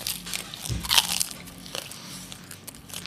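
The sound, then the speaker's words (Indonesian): Crisp crunching of someone biting into krupuk crackers, with a loud crack near the start followed by softer crackly chewing bursts, no talking. “Sekarang gua ngomong ada backsoundnya begini kriuk.”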